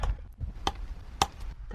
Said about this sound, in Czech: Teď jsme uřízli dva kousky hmoty šedivé.